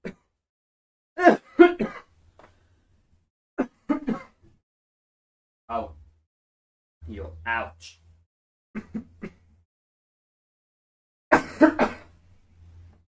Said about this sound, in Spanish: Que me da las tos.